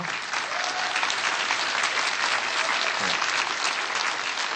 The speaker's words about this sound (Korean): 그리고 우리 어, 특별히 찬조 출연해 주신 우리 베제코라를 위해서 한번 박수 한 번 해주시고요.